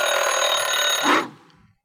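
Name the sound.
timer alarm ringing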